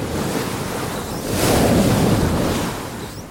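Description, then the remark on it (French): Waves crash and rush around a racing monohull sailboat diving between waves and accelerating through rough water, a loud continuous roar of surf and spray that swells midway, with strong wind buffeting the microphone. “Entre deux vagues, le monocoque plonge, accélère, accélère, accélère.”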